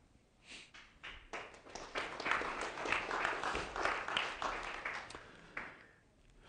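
A crowd of people applauding after an update video about Redemption Church is played: dense, steady clapping swells quickly, holds for several seconds, then thins out toward the end, with no voices over it.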